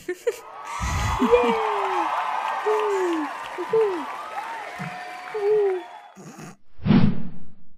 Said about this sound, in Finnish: Erittäin mahtavaa. Kyllä. Vähän semmoiset hurraa-huudot.